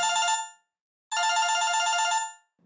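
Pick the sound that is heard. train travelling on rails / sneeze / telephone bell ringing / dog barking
telephone bell ringing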